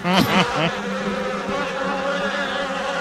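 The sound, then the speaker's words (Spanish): A dense swarm of bees, a cloud of millions that had been nesting between tongue-and-groove boards and wood, drones steadily, a thick layered buzz with many overlapping tones, slightly louder and busier in the first half-second before settling into a constant hum. “Era una nube de millones de ¿Cómo abejas.”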